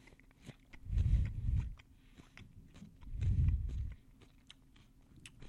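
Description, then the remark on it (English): Two bursts of wet biting and chewing on crisp cantaloupe, each lasting about a second, separated by a short pause, with faint clicks and mouth noises in between. “you don't want a soft cantaloupe. You want to like crunch into it, you know?”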